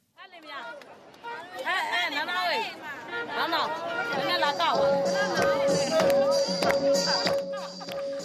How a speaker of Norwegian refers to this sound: Det er en gatefest her nå, og det er ikke vanskelig å høre hvem de heier på. De flere hundre rødkledde her utenfor den gamle britiskbygde jernbanestasjonen i Yangon, som nesten tar seieren på forskudd.